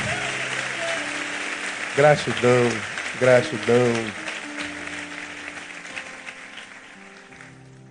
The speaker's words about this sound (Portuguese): Canta, te agradeço. Aplauda ele bem forte.